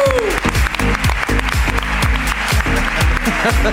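Sustained applause from an audience welcoming a guest, a dense wash of many hands clapping steadily and loudly, with a few sharper claps standing out from the crowd.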